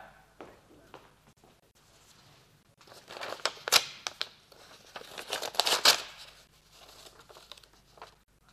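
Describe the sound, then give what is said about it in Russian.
A paper package sent from Count Kamensky is torn open, with a few seconds of crisp crinkling and rustling that swell in the middle and then taper off into quiet handling. “Принесли пакет от графа Каменского. Дай сюда.”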